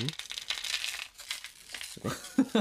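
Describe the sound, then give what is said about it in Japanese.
Dry, papery crinkling and rustling of loose, colourful dried ochazuke topping flakes shifting about, continuous, with a few soft voice sounds near the end. “彩りは綺麗なだけどねこの乾き物の音彩りは綺麗なね”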